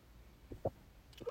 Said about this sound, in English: Ooh, excuse mm. me. Them hiccups really hitting. Yeah, them shit hurting.